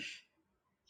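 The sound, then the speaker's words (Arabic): Two brief, high-pitched sparrow chirps, one at the start and another near the end, with a quiet pause between them, heard faintly in the background with no talking. “تسمع صوت العصافير؟”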